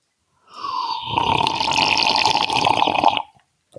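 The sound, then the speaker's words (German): A long, continuous slurping sip of tea from a cup at Schliersee in the mountains, a steady airy gurgle lasting nearly three seconds, followed by a faint click at the end. “Ich muss auch noch mal einen Schluck trinken.”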